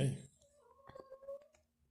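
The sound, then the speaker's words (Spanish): A cat's meow, a strong, close cry at the start followed by a drawn-out, wavering mewing tone that fades out within two seconds. “Miau.”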